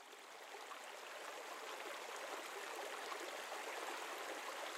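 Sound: flowing creek water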